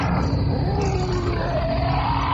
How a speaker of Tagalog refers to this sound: Ano yun? Mga asong ulul, parang ikaw. Aso ba yun? Bakit parang malalaking tigre ang tunog?